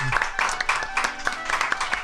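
A brief round of applause in tribute to Alan Bennett, several hands clapping in a quick, uneven patter at steady volume for about two seconds, with no one talking over it.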